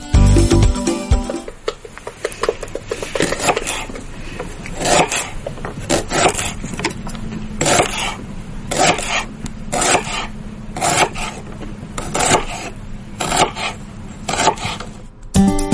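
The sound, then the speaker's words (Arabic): A knife slicing through dates on a board, a steady series of rough rasping strokes roughly once or twice per second, fairly loud, with a low hum underneath and no talking. “الظاهر انه قطاعه قطاع شيء تقطع مثلا خضار شيء زي كذا يعني سكين يعني وتحت القطاعه تقطيع”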